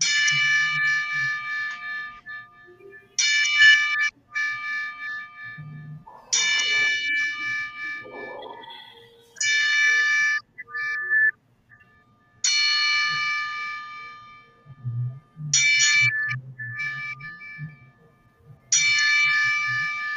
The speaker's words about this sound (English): now it's time for Jordan to do our 10 bell salute